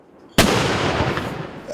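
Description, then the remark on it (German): A single shot from a fortress artillery gun, fired in a last demonstration of the weapon, booms with a sudden sharp onset, followed by a long, loud rumbling roar that lingers and echoes outdoors for over a second. “Ich habe aber Freude, dass wir jetzt noch wirklich das letzte Mal die Leistungsfähigkeit und Präzision von dieser Waffe haben können zeigen und dass sie fehlerfrei”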